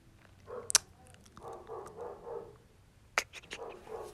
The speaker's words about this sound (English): excuse the dogs. That's, that's those are my neighbor dogs, and they're just aggravating the shit right now.